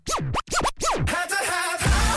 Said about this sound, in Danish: Og hvad sker der? Nyt scratch?